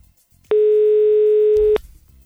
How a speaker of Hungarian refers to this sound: Nem veszi föl. Hát már, ha ennyiből nem veszed föl a telefonod, már nem veszed föl a telefonod.